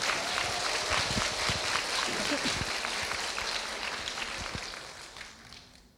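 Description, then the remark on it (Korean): An audience at a stage event claps steadily for several seconds to thank the florist who decorated the stage with flowers, a dense wash of overlapping claps with some murmuring voices underneath, gradually thinning and fading toward the end. “여러분 박수 한번 부탁드려요.”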